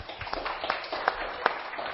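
Scattered applause from a small group, a steady patter of overlapping claps with a few sharper, louder hits standing out, moderately loud and continuing throughout.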